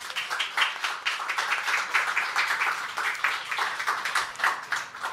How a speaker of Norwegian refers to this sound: Vi må gi dere en applaus så langt.